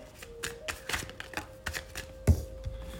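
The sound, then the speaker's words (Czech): Playing cards being shuffled and handled, with a card falling out of the deck: a run of quick, crisp papery flicks and soft taps, with one sharper slap partway through, over a faint steady hum, and no talking. “Vypadla mě z balíčku karta, ještě se podíváme.”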